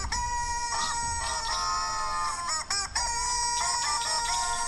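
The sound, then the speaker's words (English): Chicken clucks and squawks strung together to play a film studio fanfare melody, loud and continuous with a brief break near the end, no talking. “20th Century Fox in- intro, Mr. Chicken”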